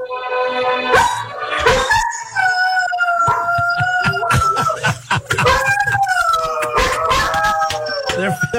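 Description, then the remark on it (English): Several dogs howl together along to opera music in long, wavering, rising and falling tones, loud, mixed with a sustained musical background that the howls seem to follow. “he can turn on this certain uh, opera, and the dogs wow. will just stop what they're doing and they will look up”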